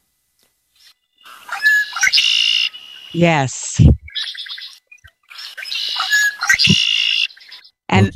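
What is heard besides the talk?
red-winged blackbird song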